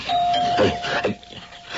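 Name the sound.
doorbell ringing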